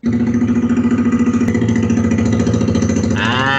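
A prototype amphibious motorcycle engine hums steadily at idle with a rapid, even, throbbing pulse, loud, sounding somewhat like a small boat motor before rising slightly near the end.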